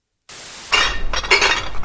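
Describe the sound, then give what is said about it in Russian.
Glass bottles clink and rattle against each other in a busy, irregular jostle, loud, as empty glass is carried along a street to be thrown away. No one speaks. “Наверное, вы это слышите, как и примерно половина улицы это слышит. Что происходит? А, мы идем выбрасывать стекло.”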